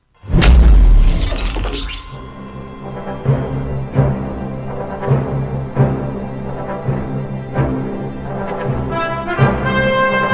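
A short jingle for a segment of the Demon Show radio programme bursts open with a loud crashing, shattering hit, then settles into a bright, sustained melody with steady rhythmic accents, prominent and upfront for about ten seconds.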